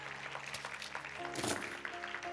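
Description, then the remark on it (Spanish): An audience applauding the Lord, a soft, steady patter of many hands that swells briefly midway, over sustained keyboard chords. “Fuerte el aplauso al Señor ahí”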